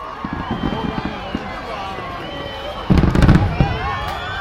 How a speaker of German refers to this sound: Das eindrucksvollste Feuerwerk, das ich je erlebt habe, endet mit fünf hell erleuchteten Buchstaben über dem Hafen von Sydney, die ein Wort bilden. Peace.